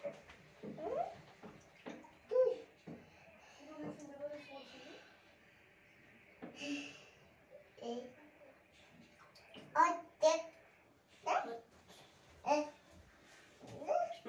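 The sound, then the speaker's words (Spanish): Water pours steadily into a bathtub filled to bathe a small child, the tub already very full, a continuous rushing hiss running the whole time, while the child babbles and chatters over it. “Cerremos un poco la llave porque ya está muy llena.”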